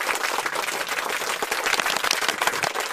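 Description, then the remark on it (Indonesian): Enthusiastic applause from the audience at the final round of a competition, a dense, steady clatter of many hands clapping at once, loud and continuous for the whole stretch with no voices standing out. “Di stek terdengar suara tepuk tangan yang meriah dari penonton lomba tersebut.”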